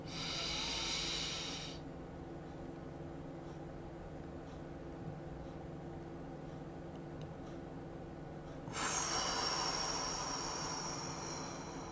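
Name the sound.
deep breathing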